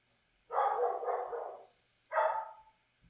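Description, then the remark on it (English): A Chinook dog barks twice, a long drawn-out bark followed after a short pause by a shorter one, loud with no talking. “my dog's barking.”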